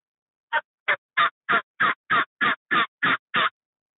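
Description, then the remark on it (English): A turkey mouth call, worked by moving the tongue while exhaling or inhaling, sounds a simple cluck: ten short, evenly spaced clucks in a steady rhythm, each a crisp, fairly loud burst, with silence between them and no talking. “So here I'll do. Uh, will you like uh, simple clock?”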